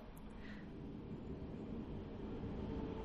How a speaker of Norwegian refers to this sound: Nå kommer det enda et tog. Som dramatisk i bakgrunnen for eh, lager mye mer lyd enn jeg har lagt merke til før.